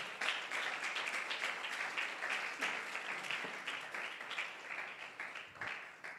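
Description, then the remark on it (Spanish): An audience applauds the Lord at night, many hands clapping in a dense, continuous wash of sound that holds at an even level for several seconds, with faint voices mixed in. “Ah, si lo cree, dele un fuerte aplauso al Señor en esta noche.”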